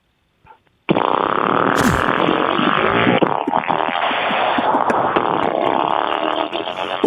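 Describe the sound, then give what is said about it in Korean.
A voice imitates a delivery motorcycle engine: a sustained, loud, buzzing rumble of lip and throat sputtering that revs briefly early on, then drones steadily for about six seconds. “아, 배달용 배달용 네. 오토바이 소리 한번 네. 들어보도록 하겠습니다.”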